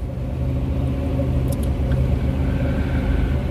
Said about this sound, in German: Da hat man natürlich die restlichen Umgebungsgeräusche, aber das ist dann nun mal klar, wenn man beim Autofahren äh, aufnimmt, dann hat man das Geräusch vom Auto, äh, das ist halt ganz normal.